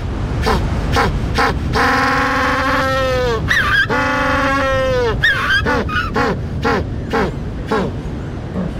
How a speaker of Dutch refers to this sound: zwartvoetpinguïn of de Afrikaanse pinguïn, dus de enige pinguïn die in Afrika broedt, die heeft men in dierentuinen weliswaar bestudeerd en daar hebben ze vastgesteld de wet van Zipf, oké, de wet van Mensenraad Altman, oké, de pinguïn doet dat ook.